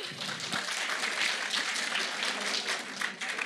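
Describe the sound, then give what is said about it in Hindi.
An audience applauds steadily for the Jawaharlal Nehru University team at an inter-university event, many hands clapping together in a dense, continuous crackle that holds at an even level for the whole stretch, with no voices rising above it. “जैसे अभी आपने सुना कि जवाहरलाल नेहरू यूनिवर्सिटी की टीम का नाम है अहमद फराज टीम उनके लिए तालियां बजाइए”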